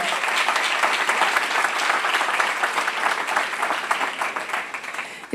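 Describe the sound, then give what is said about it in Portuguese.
An audience applauds Jesus during a church sermon, many hands clapping in a dense, continuous patter that stays fairly loud throughout, with no one speaking over it. “Ah, aplauda Jesus, querido, por favor.”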